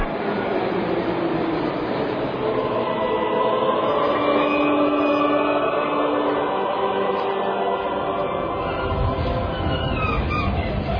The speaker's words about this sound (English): So, with the last train about to pull out of Hilversum, is another festival already, as it were, in the pipeline?